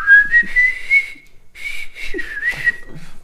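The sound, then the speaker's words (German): A loud, harsh whistled tune whistled into the microphone, overdriven, clipping and distorted, in two sustained phrases separated by a short pause, with breathy noise around the pitched tone. “Wow, ist das ähm, Übersteuern.”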